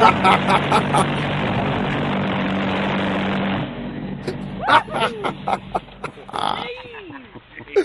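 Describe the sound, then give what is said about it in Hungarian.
The go-kart Night of the Beast, fitted with a 750cc FZR motorcycle engine, roars loudly and steadily for a few seconds, then stops abruptly, and voices talk and react in the quieter moments that follow. “Igen, az a gokart, mert az, hogy FZR motor van, meg 750-es.”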